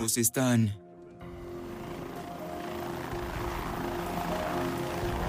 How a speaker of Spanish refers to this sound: Al día siguiente, los helicópteros del Departamento de Seguridad Pública de Arizona recorrieron la ruta programada. Volaron sobre la Interestatal 17 hacia el norte hasta Flagstaff, comprobando todas las salidas.